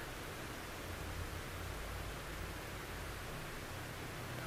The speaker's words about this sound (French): Prêtez attention au bruit des vagues qui s'échouent sur la plage.